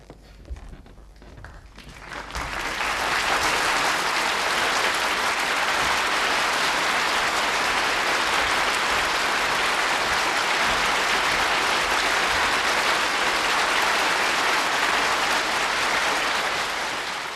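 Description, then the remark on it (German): A theatre audience at the Kammerspiele in Munich welcomes a writer with loud, sustained applause after a couple of seconds of quieter scattered clapping, the dense clatter of many hands holding steady without letting up until the end. “Theaterintendant Hans Schweikart zelebrierte den nicht enden wollenden Applaus, mit dem das Publikum den Schriftsteller pathetisch in München empfing.”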